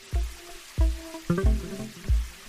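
Water gurgles and plops in a handful of bubbly, resonant bursts spaced irregularly over a couple of seconds, with quiet gaps between and no voices.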